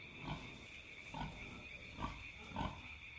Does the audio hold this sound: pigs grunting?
yes